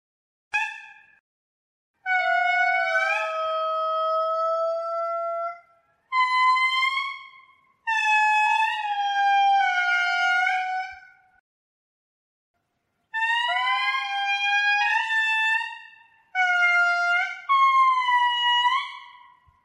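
Indri lemurs sing loud, siren-like wailing calls in a forest, in a series of long gliding phrases, with voices overlapping at times and short pauses between bursts. No one talks.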